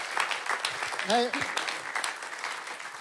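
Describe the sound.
An audience claps steadily, a dense crackling wash of applause lasting the whole clip, with a short voice calling out or cheering over it partway through.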